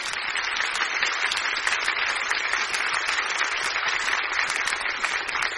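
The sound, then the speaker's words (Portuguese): An audience applauding the Lord, a steady, dense wash of many hands clapping at once, sustained and fairly loud without letting up for the whole stretch, with no voices standing out. “Você pode aplaudir ao Senhor, aleluia.”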